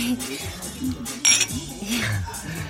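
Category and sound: household object, glasses clinking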